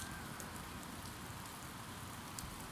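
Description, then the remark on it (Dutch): Drizzling rain on a Saturday afternoon in Utrecht falls in a steady, soft hiss, with faint scattered drops pattering throughout and no voices. “Het is een druilerige zaterdagmiddag in Utrecht.”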